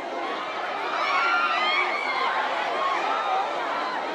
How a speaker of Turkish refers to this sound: Çeyiz ve ev eşyası mağazasının açılışında izdiham yaşandı. Bursa'da bir firma açılışı özel kampanya düzenledi. İndirimi duyan koştu geldi. Mağaza önünde yüzlerce kişi birikti.